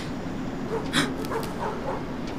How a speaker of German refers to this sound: Ich glaube, ich weiß, wo Löbert seine Hunde hat. Sie sind hier.